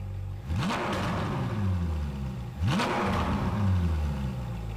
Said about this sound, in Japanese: まずはフェラーリ458スパイダー2014年式フェラーリ458スパイダ